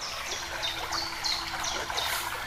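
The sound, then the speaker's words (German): A gently trickling spring in a desert oasis babbles steadily, its soft, continuous splashing accompanied by faint bird chirps flickering in the background. “Und du hörst die ganze Zeit dieses Plätschern der Quelle.”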